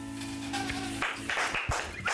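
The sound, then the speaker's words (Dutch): A sustained musical chord rings out, then gives way to scattered, uneven clapping from a small audience, a modest patter of applause lasting about a second. “Het is een, eh, het is een bescheiden, bescheiden publiek, maar het applaus is niet minder eh gemeend.”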